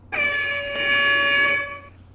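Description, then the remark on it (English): A loud, sustained air horn blast holds steady for about a second and a half with rich stacked harmonics, then cuts off abruptly, leaving a brief fading tail. “And now I scroll back to the air horns.”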